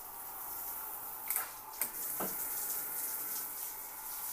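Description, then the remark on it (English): Shower head running hot water: a steady hiss of spraying water that holds throughout, broken by a few brief sputtering knocks partway through. Nobody speaks. “Ew, what is going on with my shower head?”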